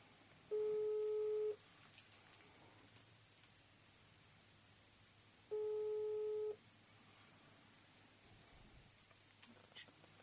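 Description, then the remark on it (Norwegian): A telephone ringback tone sounds twice while a phone call is being placed, each steady tone lasting about a second with roughly four seconds of quiet between, over a faint hiss of background noise. “Så da tenkte jeg da tar vi bare og, og ringer han, og så hører vi hva han har å si.”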